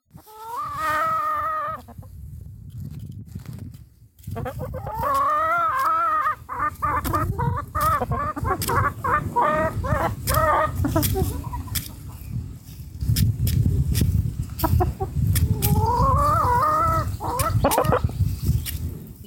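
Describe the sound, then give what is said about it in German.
A rescued hen clucks repeatedly while eating an apple, its calls rising and falling, over a steady stream of sharp pecking taps and scratchy low rustling, with no talking. “Wen ihr hier gerade vielleicht im Hintergrund ein bisschen picken hört, ist äh, Dolly, ein gerettetes Huhn.”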